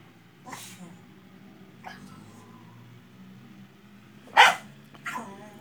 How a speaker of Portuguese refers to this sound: O cachorro começou a latir. Cala a boca, Ju! Cala a boca, cachorro vagabundo! Vai deitar! Acho que agora ela obedece.